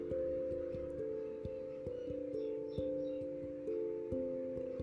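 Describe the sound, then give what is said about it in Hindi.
A phone rings with a steady electronic ringtone, a sequence of sustained tones that shifts pitch roughly every half second, loud for the whole stretch with no voices; it is a friend calling again. “इतने में दोस्त का दोबारा फ़ोन आता है”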